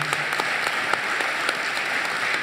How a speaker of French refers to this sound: Voilà, applaudissements, bien évidemment